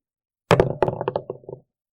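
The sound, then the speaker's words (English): A d20 die, rolled at disadvantage, clatters across a hard surface, a quick run of sharp knocks and rattles that bounce and taper off over about a second, with no talking. “So what happens is when when I'm at a disadvantage when I roll, I roll a d20 twice, but I take the lower score of the two.”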